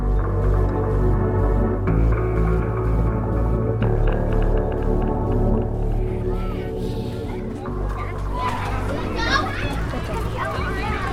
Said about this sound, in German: Okay, also ähm, wieder mal ganz schön laut. Äh, klingt diesmal aber nach Schule. Wo sind wir jetzt? Schule ist auf jeden Fall richtig. Wir sind an der Grundschule, vor der Grundschule in Klicksbühl.